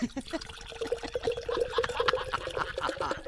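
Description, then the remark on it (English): Beer pours steadily into an official Hall of Fame beer mug, a continuous gurgling stream whose pitch climbs as the mug fills, with a faint voice or laugh in the background. “And uh, so, without further ado, I begin to pour.”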